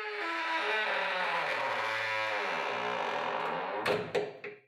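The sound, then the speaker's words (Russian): A door creaks open seemingly by itself in one long, loud, groaning drawn-out creak, its pitch wavering and sliding lower, then ends with a few sharp knocks and thuds. No voices. “Она отворилась, явно сама по себе.”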